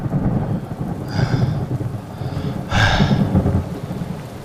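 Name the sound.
rain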